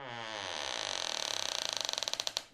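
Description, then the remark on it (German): A long, loud creak as the door of a mobile library bus swings shut, starting as a smooth groan and breaking into rapid ratcheting clicks that slow down toward the end, with no one talking. “Magst du vielleicht mal die Tür zumachen?”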